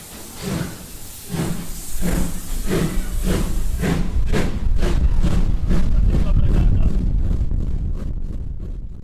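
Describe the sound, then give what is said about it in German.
A steam locomotive at full steam hisses and chuffs in a reverberant railway station hall, with rhythmic bursts of steam over a deep rumble, growing louder and denser as it works hard, with possible voices faintly underneath. “dann natürlich zufällig Vollgas in der schönen oder Volldampf in der schönen Bahnhofshalle.”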